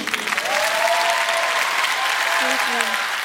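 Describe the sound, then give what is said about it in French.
Sustained applause from a large audience at the end of a speech, dense and steady clapping at full volume, with faint voices murmuring or calling out underneath. “Et c'est sous un tonnerre d'applaudissements que vous prenez place à bord de Canadair saison 2”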